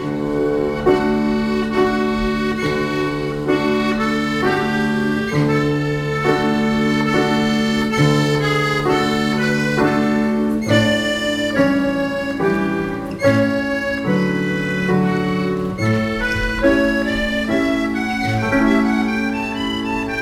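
An old French song from 1905 plays continuously at a steady, fairly loud level, with rich sustained melodic notes and a flowing tune throughout. No one talks over it.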